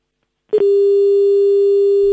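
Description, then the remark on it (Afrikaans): A loud, steady electronic telephone tone begins abruptly after a short click and holds unbroken, the flat signal heard when a phone call drops. No one speaks over it. “Goed, tyd daar het ons die lyn verloor.”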